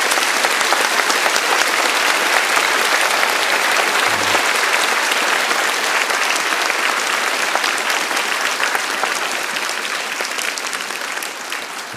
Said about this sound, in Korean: 자 얼마나 아이들 위해서 수고가 많으세요. 우리 이분들을 향해서 지구촌교에서 보낼 수 있는 가장 뜨거운 박수로 격려합니다.